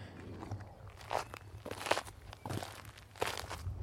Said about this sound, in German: verrückt wirst, weil deine Schuhe dieses Geräusch machen